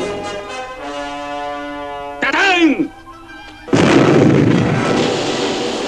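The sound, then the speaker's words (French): A merchant ship's cannon fires on pirates with a loud, sudden detonation whose roaring rumble sustains for a couple of seconds, following a stretch of steady humming tones and a brief sweeping whine. “Soudain, alors que le combat devenait tragique pour les Robinson, à court de munitions, une détonation fracassante déchira l'air.”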